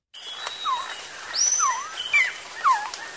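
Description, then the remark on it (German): A quetzal, a bird of the cloud forests of the Yucatán Peninsula, calls with three descending whistled notes, roughly one per second, clear, while a higher thin whistle and soft forest background hum sit behind them. “das war eben dieses Echo von dem Klatschen, das hat er festgestellt, hat eine auffallende Ähnlichkeit mit dem Ruf des Quetzals, eben jenes Vogels, der dort in den Nebelwäldern der Halbinsel Yucatan unterwegs ist.”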